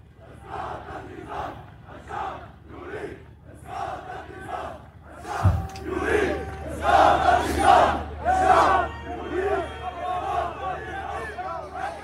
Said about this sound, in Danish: Og lad os lige høre øh, lidt mere lyd, hvor man ser en masse, fra den, en af de videoer, du har sendt os, hvor man ser en masse unge mænd, der, der demonstrerer.